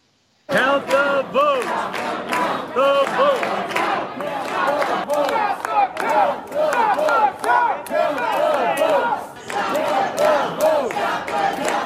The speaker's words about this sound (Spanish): Bueno, las cositas están bastante calientes por allí, ¿eh? Sí, uno gritando cuenta, cuenta los votos y los otros deja de contar.